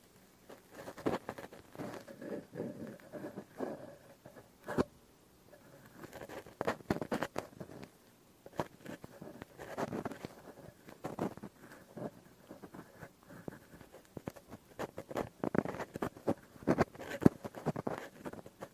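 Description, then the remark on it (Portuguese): Quiet scratching and scraping of an ear-cleaning tool right against a microphone during an ASMR ear-cleaning session, in irregular bursts of small pattering rubs and clicks, with no talking throughout. “ASMR: Limpeza de Ouvidos | Cleaning Your Ears”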